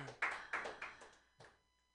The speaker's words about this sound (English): Clap it up for him and his white privilege.